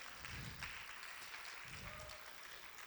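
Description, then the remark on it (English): An audience claps together during a sermon on Zechariah, a steady, fairly soft wash of many hands applauding that carries evenly through the whole moment without anyone speaking. “You can clap for that.”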